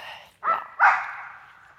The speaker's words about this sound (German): Oh, ein normales Hundegebell. Wir laufen hier übrigens am Hundepark entlang.